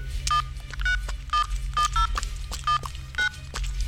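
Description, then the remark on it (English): A rapid sequence of telephone keypad dialing tones as a woman at home dials a call, about eight short beeps in an uneven rhythm over a low steady hum, clear with no talking. “She's on the phone now.”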